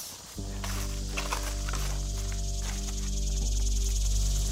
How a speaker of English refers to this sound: But I do remember the trees. Lots of trees. And that sound. of crickets and everything in the you know, forest. That night, I remember a lot of this.